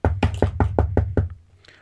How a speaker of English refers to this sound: knock at the door.